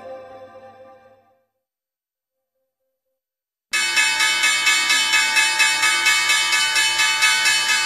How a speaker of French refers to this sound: Et eh ben voilà, comme chaque semaine, la cloche de Wall Street ouvre à la hausse